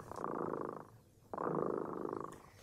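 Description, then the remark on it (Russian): A cat purrs in two steady rumbling bursts, a brief pause between them as it breathes in, soft and continuous with no voices. “Слышите, кот Ремота запел свою песенку.”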